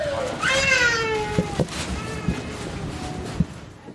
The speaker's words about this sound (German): Wir sind in die Unterwäschenabteilung und wie ihr gleich hören werdet, ein schreiendes Kind nebenan inklusive